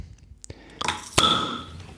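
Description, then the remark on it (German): A bottle of very light blue lemonade, still under pressure after six months, is opened: a faint tap, then a short rush of hiss and a sharp pop with a bright ringing tone that fades over the next second. “Uh, wow, was da noch an Druck drauf ist, hätte ich gar nicht erwartet.”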